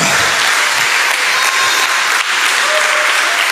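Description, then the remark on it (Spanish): A crowd applauds steadily, giving a clap to the Lord during a pastor's preaching, a dense wash of many hands clapping at once, loud and sustained throughout with no talking over it. “Dele un aplauso al Señor.”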